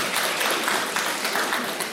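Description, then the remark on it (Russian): Steady applause from an audience, many hands clapping in a dense, continuous patter at an even level throughout, with no pauses and no voices standing out. “Они тебе хлопают, потому что они э, рады, что ты совершаешь шаг в направлении непривязанности.”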